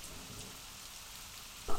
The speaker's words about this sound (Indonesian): Hujan ya, Dek? Iya.